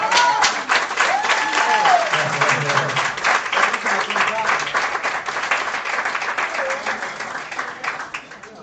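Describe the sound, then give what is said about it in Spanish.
An audience breaks into sustained applause for a girl who has just thrown a small ball against the floor, dense overlapping claps at a steady loud level for several seconds, with faint voices mixed in before it tapers slightly at the end. “Un aplauso para la chica.”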